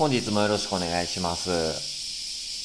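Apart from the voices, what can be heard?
cicadas buzzing outside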